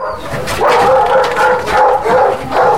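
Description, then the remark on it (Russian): Several dogs bark repeatedly in a loud, echoing chorus in the kennel corridors of an animal shelter, with overlapping yips and barks filling the space continuously. “Заодно выпустим собаку, к которой приехал волонтер.”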